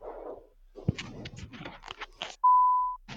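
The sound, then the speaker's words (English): A single loud, steady electronic beep lasting about half a second, following a run of crunchy, rustling noises and ending abruptly before another short burst of noise. “Beep indeed.”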